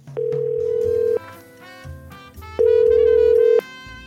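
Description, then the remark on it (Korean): A telephone ringback tone sounds twice as a call is placed to a company to set a meeting date. Each tone is a steady electronic tone lasting about a second, and the two are separated by a pause over faint background music, with no voices. “아, 네, 그럼 제가 전화해서 수요일로 잡아놓겠습니다.”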